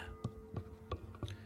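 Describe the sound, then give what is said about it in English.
Four soft knocking rattles from someone playing with a microphone, evenly spaced about a third of a second apart, muffled over a faint steady electrical hum, with no one speaking. “Sorry if you hear a bunch of rattling in the background.”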